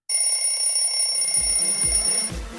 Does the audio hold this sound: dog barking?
no